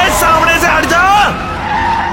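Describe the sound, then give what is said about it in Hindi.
A truck driving at speed at night brakes hard with its power brakes for a girl standing in the road, its tires letting out a loud screeching skid that wavers in pitch, bends downward, and drags on for about two seconds. “Satnam speed की वजह से गाड़ी तुरंत नहीं रोक सकता था फिर भी उसने पावर ब्रेक लगाई”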